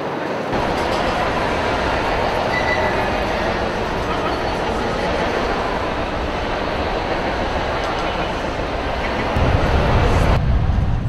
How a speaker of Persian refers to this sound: فقط نمیتونه خونه مثل بچه آدم بشینه حل کنه باید در جاهای شلوغ مترو باشه هرچی صدا بیشتر کانسنتریت بیشتر